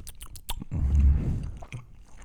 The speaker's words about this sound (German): Aber das Interessante ist, also erstmal könnte das hier auch so Schmatz-ASMR sein.